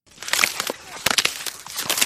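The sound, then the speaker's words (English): Ice on a frozen lake cracking and crunching in the middle of winter as a man breaks it, with a quick series of sharp, brittle snaps and splintering bursts spread over a couple of seconds, moderately loud with no voices. “And one time, in the middle of winter, we saw a frozen lake and he went and broke the ice”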